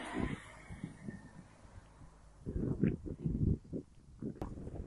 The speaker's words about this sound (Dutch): Maar net nu ik die podcast wil opnemen, begint het hard te waaien en eh, het begint zelfs een klein beetje te regenen.